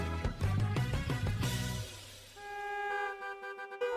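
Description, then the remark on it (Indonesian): Several car horns honk over one another in a traffic jam on a busy, congested street, with a low engine rumble early on and sustained loud honks continuing, no talking. “Duh, macet banget sih. Iya nih, macet banget.”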